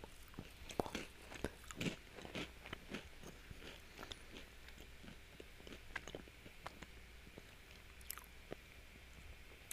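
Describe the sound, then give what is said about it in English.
Crisp crunching as someone chews food loudly, with a steady run of sharp bites and grinding chomps over nearly ten seconds and no talking. “Just sit in silence and listen to me crunch.”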